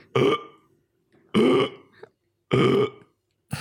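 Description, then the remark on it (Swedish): A person imitates an animal's hiccups with loud, abrupt, throaty bursts, three full ones about a second apart and a fourth starting at the end, with short breathy pauses between. “hon hickar låter hon inte likadant som en människa. När hon, alltså när hon hickar var det så.”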